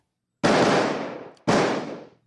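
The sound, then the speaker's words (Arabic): Two loud gunshots about a second apart, from an exchange of fire between Palestinian fighters and occupation forces at the main entrance of Tulkarm camp during a military raid and siege of a house. Each is a sharp crack followed by a long, rumbling decay that fades out before the next. No voices are heard. “هذا أصوات تبادل اطلاق الرصاص ما بين مقاومين الفلسطينيين وبين قوات الاحتلال هنا في عمق المدخل الرئيسي من مخيم طول كرم حيث يواصل الاحتلال هذه العمليه العسكريه بحصاره لاحد المنازل داخل المخيم واصوات الرصاص تخرج بين الفينه والاخرى”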